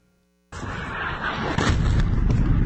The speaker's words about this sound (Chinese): 飞弹就在眼前爆炸，直击民众吓到手机都掉了，打破一个多月的宁静。俄军再度轰炸乌克兰首都基辅，市区上空浓烟密布。